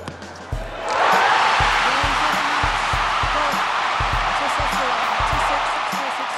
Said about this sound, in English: That's the sound of the crowd erupting when she won the US Open women's single title on Saturday after defeating Aryna Sabalenka.